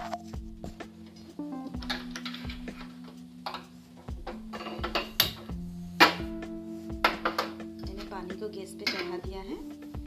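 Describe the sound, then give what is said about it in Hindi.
A pot and utensils clatter irregularly while water is put into a pot to boil pasta, with sharp metallic knocks and clinks over a steady low hum. Some louder bangs stand out midway through. “थोड़ा सा पानी लेते हैं और उसमें पास्ता को उबलने के लिए रखते हैं तो मैं एक बर्तन में पानी ले रही हूँ”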